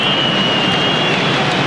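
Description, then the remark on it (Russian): A dense, steady roar of football stadium crowd noise from the stands as spectators return for the second half, loud and continuous with no distinct voices standing out. “Вы слышите, арбитр да, много это шума у нас э, сейчас трансляции, потому что трибуны только возвращаются”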